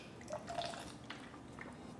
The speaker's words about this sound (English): I'm a little parched, so I'm gonna be uh, drinking some water from time to time.